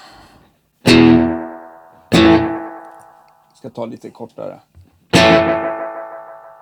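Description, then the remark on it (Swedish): Three loud electric guitar hits, each trailing into a decaying delay tail whose repeats grow thinner as they fade, with a short spoken phrase between the second and third hits. “när vi pratar smalna av då ska vi faktiskt demonstrera det för det kan vara lite dumt då.”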